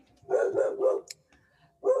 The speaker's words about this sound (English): I'll let you bark at the end, okay? Sorry.